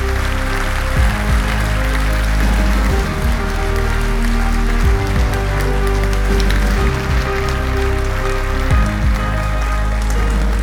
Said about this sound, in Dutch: Geef hem een daverend applaus.